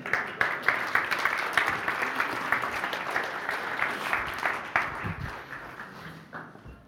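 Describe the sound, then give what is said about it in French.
Audience applause for three people called up to help, a dense, steady wash of many hands clapping for several seconds before gradually thinning and fading toward the end. “Vous êtes là aujourd'hui Formidable, on les applaudit.”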